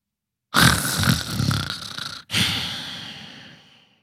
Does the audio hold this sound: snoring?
yes